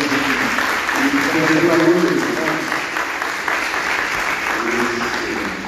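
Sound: audience clapping hands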